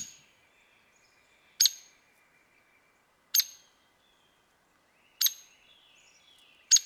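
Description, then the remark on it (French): A small bird's song heard alone: four brief, bright, buzzy notes spaced evenly about two seconds apart, with faint thin whistles lingering between them against a quiet background. The bird ranges from Alaska and Canada to Panama and lives in forests, groves, riverside woods and shade trees. “Et voici la voie de l'oiseau à l'honneur aujourd'hui.”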